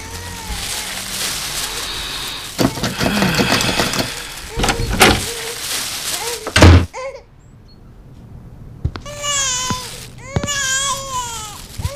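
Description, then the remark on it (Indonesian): A door is rattled and opened: several seconds of clattering, scraping noise with sharp knocks and thuds, then a brief hush before a high-pitched, wavering baby-like cry comes in. “Ya Allah, ribet banget sih buka pintu doang.”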